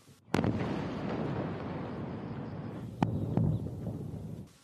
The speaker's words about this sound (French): Au lever du soleil, des explosions et des tirs.